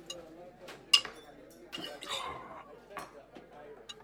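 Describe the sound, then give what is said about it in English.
Busy clatter of a Sutter Street lunchroom: scattered clinks of dishes and cutlery, one sharp ring standing out, over a steady murmur of indistinct voices. “Safe from eavesdroppers and the clatter of a Sutter Street lunchroom, the detective sergeant leaned over his clam chowder and told me what he knew about the murder, which wasn't much.”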